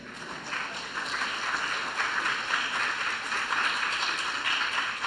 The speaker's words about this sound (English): And God mercifully saved his life. Yeah, we can clap.